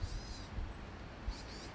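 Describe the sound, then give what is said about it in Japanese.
Faint bird calls chirp in two short bursts, one at the start and one near the end, over a low rumble of outdoor background noise. “今の私の「いいね」は聞こえるでしょうかこの鳥の鳴き声です”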